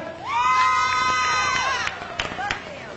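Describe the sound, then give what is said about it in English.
A loud audience at a live band show cheers and shouts before a party song, with one long, high whooping yell rising above the crowd noise before scattered shorter shouts break through the roar. “Hey, can I hear you on the back? Are y'all ready out there?”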